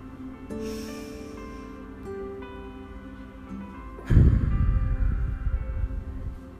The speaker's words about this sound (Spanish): Si es tiempo de avanzar, que sea a través del cambio y el lenguaje de tu respiración. Respiras profundamente.